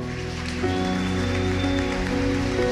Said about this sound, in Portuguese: Vamos aplaudir esses irmãos?